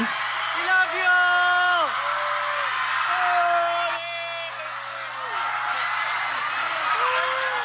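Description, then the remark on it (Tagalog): A man shouts "Pope Francis!" loudly and repeatedly over a dense, cheering crowd during the Pope's 2015 visit to the Philippines, at UST, his drawn-out yells rising above the steady roar of many voices around him. “Pope Francis! Ako po yun, sumisigaw. This is in UST.”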